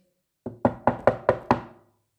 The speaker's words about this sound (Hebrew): והנה, דפיקות בדלת.